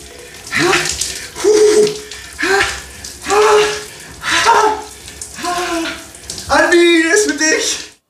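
Cold shower water pours in a steady hiss while the person taking the cold shower lets out a string of short, strained gasps and groans, roughly one each second, without speaking any words.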